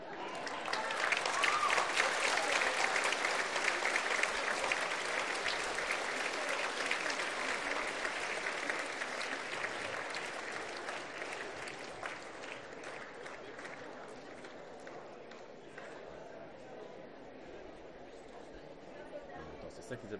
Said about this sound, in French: Donc voilà, pour avoir une pensée envers eux et les remercier, j'aimerais vous inciter à, leur réserver une standing ovation, à, un tonnerre d'applaudissements.